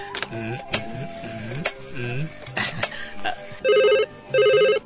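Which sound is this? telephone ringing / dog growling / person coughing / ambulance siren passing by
telephone ringing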